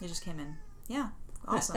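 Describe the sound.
A domestic cat gives a short, rising-and-falling meow in an apartment, squeezed between bits of casual conversation from a couple of people talking over it.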